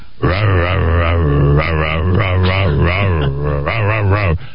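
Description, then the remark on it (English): A man imitates a dog that could not bark, pushing out several rough, throaty vocal grunts in close succession, loud, with brief gaps between bursts and no actual barking. “and do all this stuff, but he couldn't bark”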